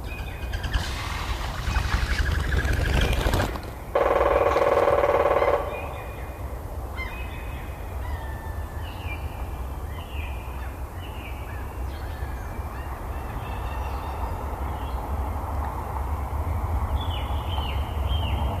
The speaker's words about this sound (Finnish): Ja mä en nyt tarkoita tätä rummutusta. Tämä on harmaa päätikka, mutta se ei liity millään tavalla siihen varsinaiseen ääniarvotukseen. Tämä on jossain jotakin tuollaista niin taustaa tehty johonkin paikkaan niin äänimaisemaksi